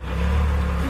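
A forklift engine revs loudly up close, a steady low mechanical drone with a whirring hum that holds for under a second, with no voices.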